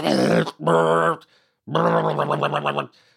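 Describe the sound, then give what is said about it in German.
A voice imitates a kitchen chair without felt glides scraping on the floor as it is moved, with three loud, buzzy, groaning drags. The first two are short and even; the last is longer and judders in quick pulses. “Zum Beispiel sowas wie, guck mal, diese kleinen Filzgleiter für die Stühle, weil mir ist aufgefallen, als ich mich hingesetzt habe zum Mittagessen in der Küche, wenn ich den Stuhl bewege, dann”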